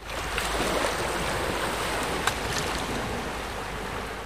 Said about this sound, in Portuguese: Assim que molhou os pés, olhou uma última vez para a enorme colônia de pinguins na praia atrás dele e partiu saltitando de encontro às pequenas ondas que quebravam em sua frente.